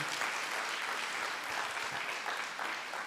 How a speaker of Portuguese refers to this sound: Vamos aplaudir por eles tristes, gente.